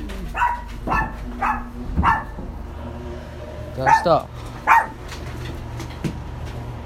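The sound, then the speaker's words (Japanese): Dogs at home, in a household of three dogs including a Chihuahua and a Dachshund, bark in a series of sharp yaps, some spaced about half a second apart and a few clustered together, while a person speaks softly in between to soothe them. “まあそれに伴いねうちのワンコたちが吠え吠えまくっているというそんな状況でおびっくりしたラジオを撮ってるというわけなんですけどちょっと犬をあやしに行こう”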